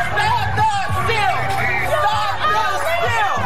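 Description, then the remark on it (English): A large crowd of thousands of Trump supporters rallying in the streets of Washington, DC cheers and shouts continuously, with many overlapping voices, whoops and yells forming a dense, loud wall of noise that stays steady throughout. “thousands of his supporters this weekend flooded the streets of the Capitol.”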